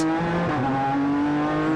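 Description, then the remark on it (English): A race car engine driven by Andy Priaulx accelerates out of the turn 14 hairpin at the end of the long straight, its loud, buzzing note climbing steadily in pitch as it revs up, with no voices present. “In fact, the, the engine note you hear in the background is Andy Priaulx.”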